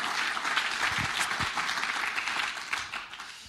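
Steady applause from a church audience in the Hauptkirche, a dense wash of many hands clapping at once, holding at an even level before tapering slightly toward the end.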